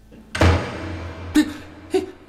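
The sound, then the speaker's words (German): A heavy door slams shut in an empty hotel with a loud booming thud, followed by two sharper, smaller knocks or bangs about a second apart, echoing. “Das ist normal im leeren Hotel, als die Türen irgendjemandem zuschlagen.”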